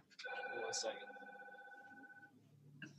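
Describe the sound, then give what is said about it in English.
A business telephone rings once with a work call: a loud, warbling electronic trill that holds steady for about two seconds before cutting off, followed by a brief soft rustle. “and he gets a phone yeah, call the business, for work.”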